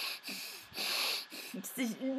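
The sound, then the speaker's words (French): A voice mimics the blocked nasal breathing of a man kissing, his nose pressed against hers: several harsh snorting breaths in an uneven rhythm, ending in a strained, wheezy voiced squeak. “Et dans ce touche, les langues ne sont pas raccords, je sais pas, son nez vient contre mon nez, du coup sa respiration est bloquée, ça fait...”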